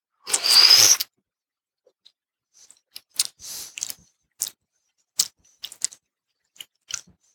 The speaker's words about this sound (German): Dann mal her mit dem Löffel. Ja, diesmal muss ich mal, mal du, damit mir nicht so viel drauf kommt. Danke. Ja, das reicht. Herrlich. Schlürfen ist das Ding der Stunde.